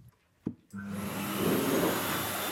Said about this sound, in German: Wenn das dicke Fell dabei nass wird, dann geht es nicht sofort in die Wohnung, sondern erst eine Runde unter den Hundeföhn. Und dann sind die auch schnell trocken.